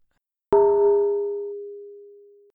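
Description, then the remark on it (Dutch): A single bright phone messaging-app notification chime rings out alone, a clear struck-bell ding whose upper tones fade quickly while a lower tone lingers for about two seconds. “Ja, dat appje.”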